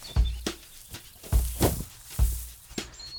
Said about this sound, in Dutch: Het ziet er zo grappig uit door dat mega hoge gras. Wat echt prachtig in bloei staat trouwens nu. Oh, en dat klinkt ook zo mooi hè, gras. Hoor maar.